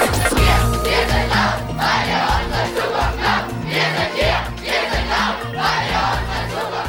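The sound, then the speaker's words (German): A large protest crowd chants loudly in rhythmic bursts at a Fridays for Future climate demonstration in 2019, voices rising and falling together in repeated surges over a constant dense roar. “So klang das auf einer der vielen Demos von Fridays for Future im Jahr 2019, die Zeit, in der Zehntausende auf die Straße gehen konnten.”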